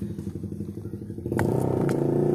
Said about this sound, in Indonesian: tar dulu bang motor bang konsentrasi itulah kelebihan podcast gue berisik